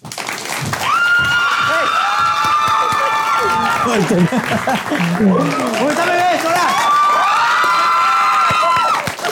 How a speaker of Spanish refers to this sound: Así que un fuerte aplauso para mi amigo Chubel Torres.